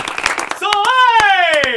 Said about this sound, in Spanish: en este Día de Logros, el premio El Tigre para el Departamento de Justicia de Puerto Rico por el caso Lorenzo. Aplauso. Aplauso. Aplauso.